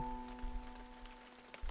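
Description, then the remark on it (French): Heavy rain pattering against windowpanes in a steady, dense wash of small drops, fairly soft, with a faint low steady hum underneath and no voices. “La pluie se fracasse sur les vitres.”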